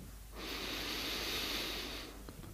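A single long, deep breath drawn in through the nose during a guided breathing exercise, airy and steady for about a second and a half, with no talking.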